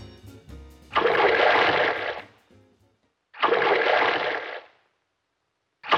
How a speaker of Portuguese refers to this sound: E aí eu escrevi um comercial que era um closes de um pingo ampliado, o som também ampliado, com uma locução em off que ouvindo dá para entender o comercial.